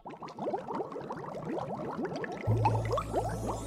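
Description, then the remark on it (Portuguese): Water bubbles and gurgles steadily in a pond, a dense, continuous stream of small pops at moderate volume, with a low rumbling hum joining in partway through. “De repente, uma voz grave que soava através das bolhas emergiu da lagoa.”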